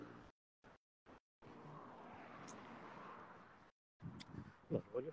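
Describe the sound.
A car swishes past, its broad road noise swelling and fading over a couple of seconds, with brief quiet gaps before it and a voice speaking afterward.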